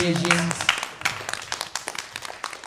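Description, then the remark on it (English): A burst of audience applause for a band, dense overlapping claps filling the whole moment at moderate loudness, with a voice briefly audible at the start. “Big round of applause for me, band ….”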